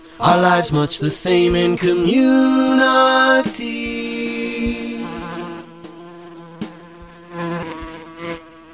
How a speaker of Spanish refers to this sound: A busy buzzing bee, a wonder to see.